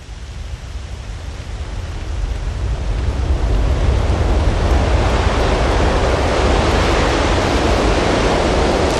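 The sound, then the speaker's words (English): A loud, continuous rush of wind roaring against the fuselage of a plane dropping from the sky. It swells over the first few seconds and then holds steady and dense, with no voices. “In the cabin, the, the screams, the crying, and then this terrible sound of the wind against the fuselage as the plane drops from the sky.”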